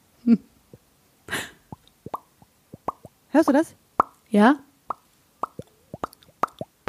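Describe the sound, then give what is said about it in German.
A voice imitates dripping water like rain with a scattered series of short, wet mouth plops, irregular like raindrops, fairly clear, with a few brief spoken words mixed in. “wir machen so Tropf, da musst du Tropf machen, ich mach Tropf, du machst wieder Tropf und dann machen wir okay.”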